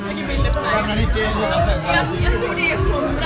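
Dense crowd chatter in a bar, many overlapping voices blending into a steady, fairly loud hubbub with no single speaker standing out.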